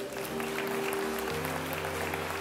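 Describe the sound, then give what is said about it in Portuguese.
An audience applauds God steadily, a dense wash of many hands clapping at once, with a sustained musical tone humming underneath throughout. “Se você recebe essa palavra, aplauda Ele, aleluia.”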